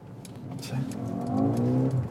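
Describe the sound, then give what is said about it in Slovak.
A car engine revs up, its droning tone climbing steadily in pitch and loudness over about two seconds, with a few faint clicks in the background. “Oj tu, ide to, ani to nedotáča ven.”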